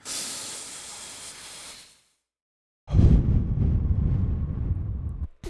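Two deep breaths blown right into a microphone: a steady airy hiss, a brief silence, then a louder, rumbling gust of breath that buffets the mic for a few seconds.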